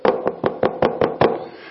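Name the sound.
knocking on a table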